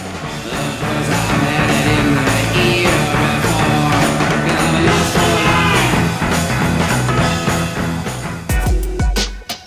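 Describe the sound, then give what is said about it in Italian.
A loud rock song from a film's opening sequence plays on its own, with a dense full-band sound and a steady, driving drum beat throughout, ending in a few sharp, punchy hits. “Senti, no dai, entriamo con un pezzone.”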